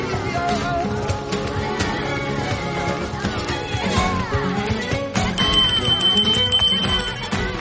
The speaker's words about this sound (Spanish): ha tocado la campana.